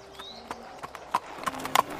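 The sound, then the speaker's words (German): A rider's mule's hooves clip-clopping at a steady, unhurried pace through the Propylaea into the sacred precinct of Epidaurus, a series of sharp hollow knocks in an irregular rhythm, with a faint whinny-like tone drifting underneath and no voices. “Kurz nach der Mittagsstunde reitet Pyrrhus zügig, aber ohne Eile auf seinem Maultier durch die Propyläen in den heiligen Bezirk von Epidaurus ein.”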